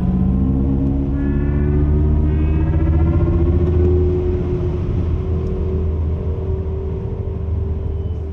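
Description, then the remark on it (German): A synthetic electric-car acceleration sound inside a car on the test track in Sindelfingen as the accelerator pedal is pressed: a loud, layered electronic drone whose harmonic tones sweep steadily upward in pitch for several seconds, with a low rumble underneath and no voices. “Wenn Thomas Küppers auf der Teststrecke in Sindelfingen aufs Pedal tritt, dann erklingen im Auto keine Naturgesetze, sondern menschliche Ideen.”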